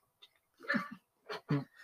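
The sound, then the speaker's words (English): A dog lets out a few short, sharp barks in quick succession, slightly muffled, with no one speaking over them. “Sorry, my dog um, must have seen a leaf fall outside.”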